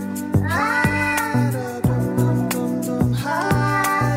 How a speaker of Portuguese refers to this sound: Ah! Eu juro que nunca vi um gato a produzir este barulho. Juro que faz.